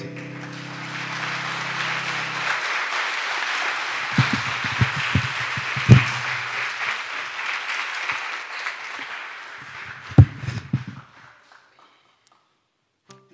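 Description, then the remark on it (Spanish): A crowd at G36 applauds the Lord steadily for about eleven seconds, a dense wash of many hands clapping with a few louder thumps mixed in, then it fades quickly to silence. “Un aplauso al Señor que”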